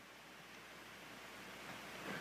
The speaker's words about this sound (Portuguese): Nós estamos aqui no santuário vazio e o ar-condicionado está ligado. Só que porque a gente está com o som ligado, eu estou aqui falando, estou gritando, a gente nem pensa no barulho do ar-condicionado. A gente só sente o seu poder.